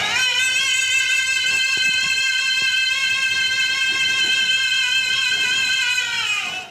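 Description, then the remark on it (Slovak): A boy sings the closing high note of an opera aria, loud and sustained for several seconds, bright and steady with rich overtones, bending slightly upward before cutting off abruptly. No one speaks over it. “A teraz dá na záver ešte a užíva si to, vieš, ešte ten...”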